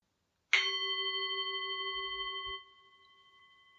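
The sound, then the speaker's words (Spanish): A gong is struck once at the end of a chakra meditation, its bright metallic tone ringing on steadily before dropping to a quieter, lingering hum. No voices, just the single resonant strike. “Al finalizar la meditación, voy a tocar el gong y a dejar tres minutos de silencio, después de los cuales voy a volver a tocar el gong y terminar el audio.”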